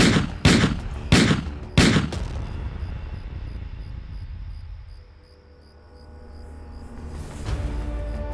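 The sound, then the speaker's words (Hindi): Three or four loud gunshots are fired in quick succession at a creature, each a sharp crack with a booming echo, followed by a long rumbling tail that fades into low ambient noise. “उसने दे दनादन सारी गोलियां उस बला पर दाग दी”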